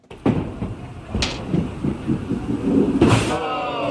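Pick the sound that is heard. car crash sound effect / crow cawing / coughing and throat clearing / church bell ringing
car crash sound effect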